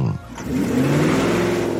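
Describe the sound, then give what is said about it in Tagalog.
A car engine revs up loudly, its pitch climbing steadily as the car is sped away, a continuous roaring drone. “Si Ayla naman, pagkatapos niyang makita na pinaharurot ko na ang sasakyan, ay mabilis na sisigaw ng...”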